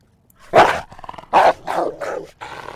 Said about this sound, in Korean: 네, 사나운 개소리입니다. 개소리, 그러니까 좀 그런데 사나운 개 짖는 소리. 한 번 더요. 오우 사납습니다. 맹견이네요.